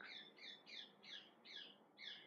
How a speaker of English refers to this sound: think the parrot wants to speak.